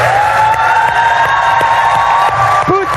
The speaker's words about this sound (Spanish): Ahora dicen, bajen los teléfonos y denle un aplauso, pero mira cómo saluda él, mira.